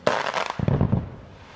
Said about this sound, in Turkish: Görüntülerdeki bu 30 saniyede 3 kez dinamit patlatılıyor peş peşe.